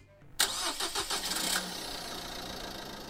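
A car engine cranks with a few quick rhythmic bursts, then catches and settles into a steady idle, with no one talking.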